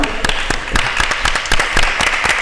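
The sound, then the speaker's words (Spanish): An audience claps steadily, many hands striking in a dense, continuous patter that stays fairly loud from start to finish, with no voices rising above it. “Bueno, pues otro aplauso”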